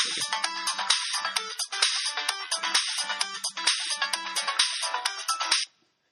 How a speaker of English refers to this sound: Oh, Ooh, sorry, phone call.